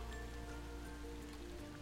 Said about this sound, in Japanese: すごいうんああ雨風もうん